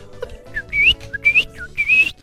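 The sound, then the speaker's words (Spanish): A whistled imitation of a male bird's mating song, sung to attract the female: three repeated phrases, each a short low chirp followed by a longer, bright rising whistle, fairly loud with a faint low hum beneath. “Y ahí vemos al pajarraco cantando y haciendo desmanes para llamar la atención de la hembra que más tarde se van a parear.”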